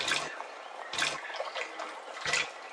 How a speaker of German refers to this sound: Sie fliegt zum Teich, setzt sich auf ein Seerosenblatt und trinkt das kühle Wasser.